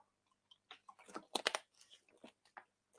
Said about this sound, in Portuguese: Perdão, pessoal, me engasguei aqui, deixa eu só tomar água.